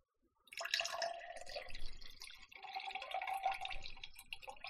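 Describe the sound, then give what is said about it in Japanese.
Cold brew coffee being poured into a container, a steady splashing trickle that starts after a brief pause and continues unbroken to the end, moderately loud with no voices. “えー、水出しコーヒーを注ぎます。”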